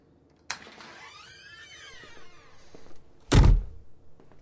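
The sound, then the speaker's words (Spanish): A door clicks open and creaks on its hinges with a rising, drawn-out squeal, then shuts with a heavy thud, followed by faint shuffling. “Abre la puerta y crúzala.”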